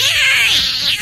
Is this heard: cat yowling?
yes